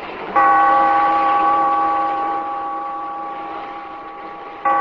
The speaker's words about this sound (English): Bellkeeper, toll the bell.